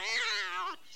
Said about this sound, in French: Et il y avait de quoi, car c'était un chat sauvage qui venait de lui sauter dessus.